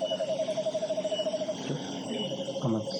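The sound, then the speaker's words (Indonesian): Someone imitates a children's squeaky rubber duck bath toy with a quick, steady run of high squeaks, fairly loud, then a few softer, looser squeaks near the end. “Tau gak sih mainan anak-anak yang di air, di ember? Bebek.”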